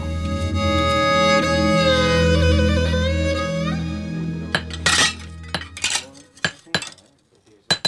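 Metalwork in a blacksmith's forge in Yuseong-gu, Daejeon, where a knife is being finished: a loud, steady whining drone that bends in pitch gives way to a burst of sharp, irregular metallic clanks and strikes.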